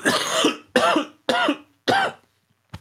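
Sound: coughing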